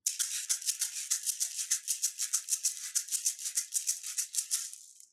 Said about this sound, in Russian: Маракасы — это просто по факту что-то, э, где внутри будут э, у тебя крупинки чего-нибудь.